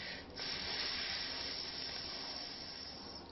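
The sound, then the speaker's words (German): A person hisses like a cobra while lying on the belly and stretching the upper body upward, one long, steady, breathy hiss that starts after a brief pause and holds for about three seconds, fairly quiet, with no talking. “Jetzt kannst du deinen Oberkörper nach oben strecken und wie eine Kobra zischen.”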